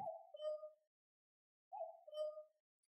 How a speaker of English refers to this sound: and then you realize the cuckoo clock is cuckooing again.